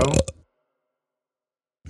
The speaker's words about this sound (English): Love the burp too. Yeah. Very genuine and earthy. Just like us. I did have some smoky chicken today for dinner.